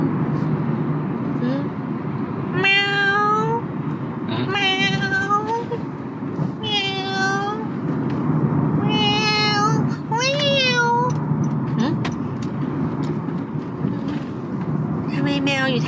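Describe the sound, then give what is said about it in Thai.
A black cat outside a window meows repeatedly, about six drawn-out, wavering cries in sequence, fairly loud, over a steady low rumbling background noise. “พอมองไปที่หน้าต่าง ก็เห็นเป็นแมวร่างดำๆอยู่ตรงนอกหน้าต่าง แล้วก็มองอยู่เฉยตรงนั้นเอ๊ะอะไรแมวทำไมถึงขึ้นมาเหรอ”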